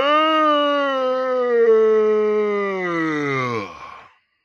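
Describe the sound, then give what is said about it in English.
A big, drawn-out yawn, loud, with a tonal voiced quality that slowly slides downward in pitch for about four seconds before trailing off abruptly. No one talks. “I got a yawn. That's a big yawn, actually.”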